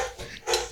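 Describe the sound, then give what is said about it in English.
A dog in a house gives two short, quick vocal bursts, something between a bark and a whimper, with no one talking over it. “I'm going to apologize for the dogs in the background.”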